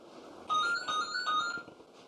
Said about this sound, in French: Il y a ton téléphone qui sonne.